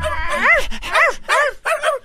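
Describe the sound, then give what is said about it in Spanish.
Dogs barking, about four loud, high-pitched yelping barks in quick succession with short gaps, with no talking over them. “¿Cómo estás ahí tú y los perros que están al lado tuyo?”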